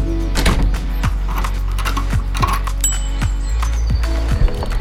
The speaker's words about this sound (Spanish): el sonido del rodado de tu bici se convierte en un mantra, una guía que te relaja y acompaña con constancia tu viaje.